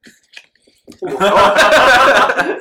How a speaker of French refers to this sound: La dernière gorgée, j'ai du mal à passer, je peux me permettre.